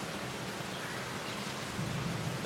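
Steady rain hiss under a low, rolling rumble of thunder that swells slightly toward the end, with no voices, during a thunderstorm in Singapore.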